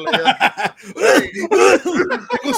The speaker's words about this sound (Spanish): Agarro el, agarro el detector de bichos de, de ¿cómo se llama? De, de, Sheila. de Sheila, güey, y ya me dio asma y empieza a toser.